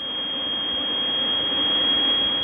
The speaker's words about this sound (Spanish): Me dice el capitán que el avión de valor está prendiendo motores.